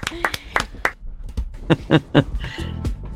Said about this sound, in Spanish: ¡Qué emoción! Aplausos. ¡Qué emoción, por favor!